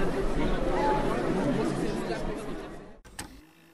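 A dense murmur of many voices chattering at once, steady and fairly loud, with no distinct words; it cuts off abruptly near the end, followed by a brief click and near silence.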